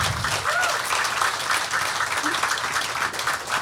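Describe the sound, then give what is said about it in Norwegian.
A crowd applauds authors Jostein Gaarder and Carl Frode Tiller, the evening's guests, steadily, dense clapping filling the whole stretch at a constant loud level, with a faint murmur of voices mixed underneath. “Uh, jeg har lyst til at vi skal begynne med å gi en stor applaus til Jostein Gaarder og Carl Frode Tiller, som er”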